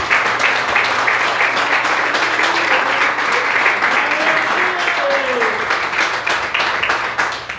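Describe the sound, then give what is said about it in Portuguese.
An audience claps hands in worship, praising the name of the Lord, in sustained, dense applause that stays loud and steady throughout, with faint voices and a low hum beneath the clapping. “E as palmas que adoram e exaltam o nome do Senhor.”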